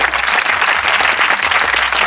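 Steady applause from a crowd, dense overlapping claps at an even, fairly loud level throughout the brief moment, with no voices standing out.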